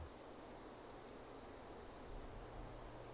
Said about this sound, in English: the wind through the trees sounds like waves